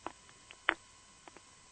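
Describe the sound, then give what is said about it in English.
A phone being handed over: handling noise of a few soft, scattered clicks and rubs, with one sharper knock in the middle and no one talking. “I will pass the phone back to her”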